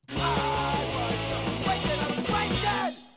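A loud, brassy game show buzzer sound blares for about three seconds, its stacked tones stepping through a few pitch shifts before cutting off abruptly. No one speaks over it.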